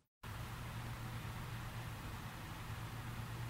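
A USGS earthquake simulator, a metal frame a few yards across, runs with a steady, loud mechanical roar and a low humming drone underneath, starting abruptly after a brief silence and holding constant throughout, with no voices.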